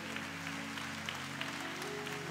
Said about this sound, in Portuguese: Pode aplaudir o Senhor.